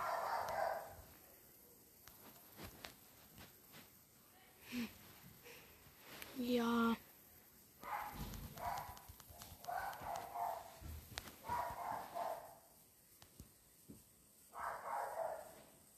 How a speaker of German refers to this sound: Oh, mein Hund bellt gerade.